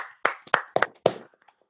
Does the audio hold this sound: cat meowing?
no